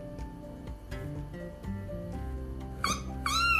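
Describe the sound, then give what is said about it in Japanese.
A cat lets out two loud, drawn-out meows in quick succession near the end, rising sharply over a steady low background of tonal sound. “おおなんかすごい声が出ましたね。おおびっくりした。”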